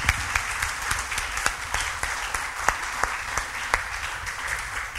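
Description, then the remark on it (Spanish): An audience claps as a welcome steadily for several seconds, a dense wash of overlapping hand claps with a few sharper, louder claps standing out. No one speaks over it. “Bueno, pues vamos a darnos un abrazo de bienvenida, un, aplauso.”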